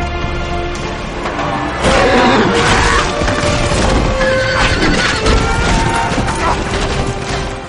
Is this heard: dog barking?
no